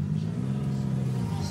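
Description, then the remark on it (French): A car engine idles and revs with a steady, deep rumbling drone that holds fairly loud for the whole moment, with no clear rise or fall in pitch. “Moteur.”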